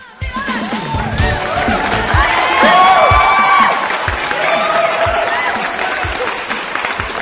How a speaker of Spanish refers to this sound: para ellos pido un aplauso público conocedor.